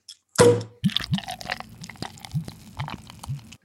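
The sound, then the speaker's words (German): A brief burst of hiss as a bottle of Weizenbock beer is opened, then the beer glugs into a glass: a run of bubbly, rising gurgles over soft fizzing, moderately loud, with no one speaking. “Ich habe ihn jetzt schon geöffnet und eingeschenkt.”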